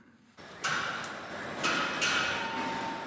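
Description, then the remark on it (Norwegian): Steady industrial factory noise with a dense mechanical hum, a few sharp hissing bursts and high whining tones rising out of it, loud, no voices. “Lyden av fabrikk er ganske lik uavhengig om den lager deler til oljeplattformer eller til biler.”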